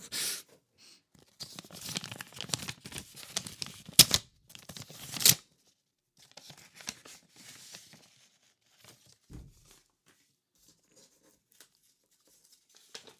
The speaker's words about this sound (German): Ähm, ich glaube jetzt nicht, dass so ein aufzumachen da oder ein, äh, ein Umschlag, den ich aufmache, dass der jetzt irgendwie besonders erotisches Geräusch oder so von sich gibt.